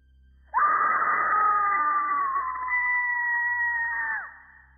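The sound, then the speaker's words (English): A single loud, high-pitched scream of terror coming from inside a house, held steadily for nearly four seconds before breaking off with a sharp downward slide. No one speaks, and there is only faint background hum. “But before we could knock, we heard a loud scream coming from inside the house.”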